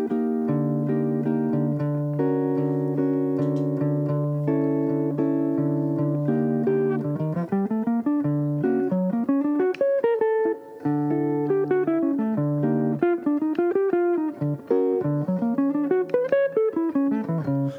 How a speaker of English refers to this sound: I mean, it just sounds like I'm going to, to outer space, kind of. Mm-hmm. But there's logic to it. You know, I'm just I just randomly selected three triads and just cycled them back and forth.